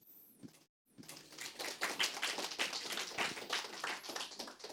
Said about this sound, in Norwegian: Så da tenker jeg at vi gir henne en varm applaus.